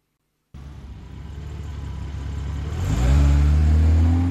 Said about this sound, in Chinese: 下了楼，汽车已经发动了。